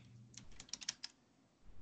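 Rapid clicking keystrokes on a computer keyboard, a short burst of several taps in quick succession, fairly quiet, with no talking.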